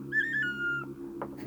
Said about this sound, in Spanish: Cuando chiflo suena así.